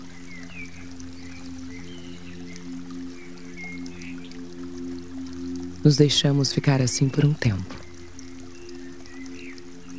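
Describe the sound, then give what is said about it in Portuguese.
Water flows and splashes steadily from a fountain with a statue of Don Quixote on his horse Rocinante at its center, a constant soft wash with a low hum beneath it, while someone speaks briefly partway through. “Embalados pelo som delicado da água e iluminados pela reluzente figura do Cavaleiro de la Mancha.”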